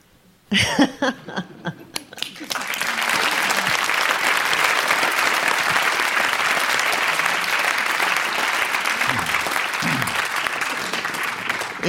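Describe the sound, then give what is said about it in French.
A large audience bursts into applause after a few brief opening sounds, the clapping quickly swelling into a dense, steady roar that stays loud for about nine seconds. “Merci de ne pas manifester, mes agneaux, ni cris ni applaudissements, car comme dit le poète, seul le silence est grand tout le reste est faiblesse.”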